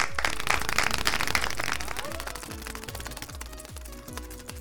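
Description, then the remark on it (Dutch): A prize wheel is spun again, giving a rapid stream of sharp ratchet clicks that gradually slow and spread out as it winds down, loud with no talking. “Je mag opnieuw draaien.”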